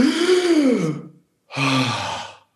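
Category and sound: vocal imitation, imitated gasp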